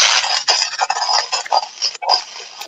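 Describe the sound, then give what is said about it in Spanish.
A manual coffee grinder grinding coffee to make the morning tinto (black coffee): a steady, harsh, gritty scraping with uneven pulses and brief dips as the crank turns, fairly loud and heard alone without any talking. “No, señores, es el molino de café a mano.”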